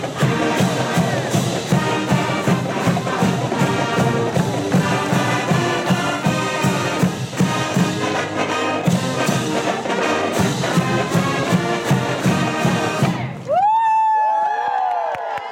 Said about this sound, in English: At the end of our last story, we heard the bells of UC Berkeley's Campanile Tower. Completed in 1914, the clock tower is actually named Sather Tower, but referred to as the Campanile.